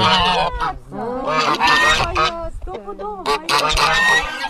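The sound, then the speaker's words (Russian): A flock of geese honking loudly and continuously as they come out to meet visitors, harsh overlapping calls coming in bursts, with a faint voice in the background. “Вот Нам встречу вышли гуси, которые громко кричали, но особенно близко старались не подходить.”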